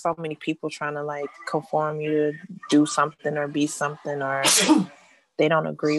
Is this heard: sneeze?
yes